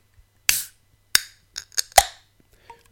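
beer can being opened

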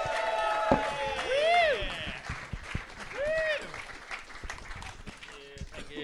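audience applause and cheering

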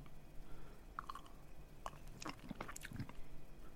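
sipping wine

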